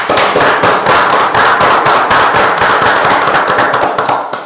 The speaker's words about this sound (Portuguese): cara, acho que ele merece uma salva de palmas, né?